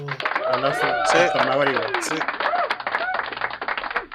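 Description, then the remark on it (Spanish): Hands clap in quick, steady applause, fairly loud, while voices talk and laugh over the first half before the clapping carries on more on its own. “No, igual buena la historia, buena, buena, buena. se merece un aplauso”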